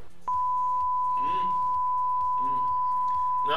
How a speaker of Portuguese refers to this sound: Eu vou, falar umas, eu vou falar umas três marcas de cerveja, agora que eu vou bipar, obviamente